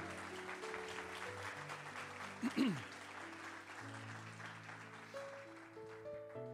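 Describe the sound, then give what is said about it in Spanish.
A church audience claps for the Lord in a sustained, dense wash of applause, steady throughout, with a brief cheer or whoop near the middle and musical tones holding underneath. “Y denle un aplauso fuerte al Señor, claro que sí.”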